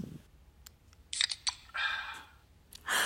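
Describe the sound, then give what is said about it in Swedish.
Several crisp, close-up shutter clicks from a new phone's camera as someone takes pictures with it, a few quick faint ticks followed by louder bursts of shutter noise, separated by short pauses with no talking. “Alltså vet du hur det låter när jag tar bild med telefonen?”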